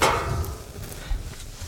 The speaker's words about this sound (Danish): Men så gør, lav lige dit bank igen, og så kan du øh, komme med intro.